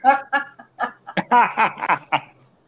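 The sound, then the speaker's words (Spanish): A guinea pig squeaks in a quick run of short, chirpy bursts, about ten in under three seconds, fairly loud with no one talking. “Ay, bueno, es son de cuyo.”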